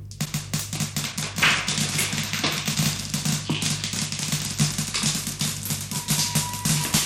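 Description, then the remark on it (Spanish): Glass marbles, the little glass balls children play with in Mexico, clicking and clattering together in a rapid, continuous stream of sharp little taps, fairly loud, over a steady low hum with no voices. “Son preciosas las canicas, lindas bolitas de vidrio que brillan y suenan.”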